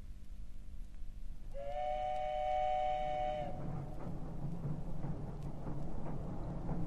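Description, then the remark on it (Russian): A passenger train, the seven o'clock morning train to Moscow, rumbles along steadily, its long whistle sounding for about two seconds before the low, continuous rolling of the carriages carries on alone. “На другой день с семичасовым утренним поездом Петька уже ехал в Москву.”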